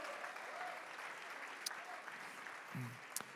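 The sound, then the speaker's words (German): Steady audience applause at an Easter church service in Nürnberg, given for the church's friends in Erlangen: a dense crackle of many hands clapping at an even level throughout, with a few sharper claps and a brief low murmur near the end. “Lasst uns unseren Freunden in Erlangen mal einen riesen, riesen Applaus geben.”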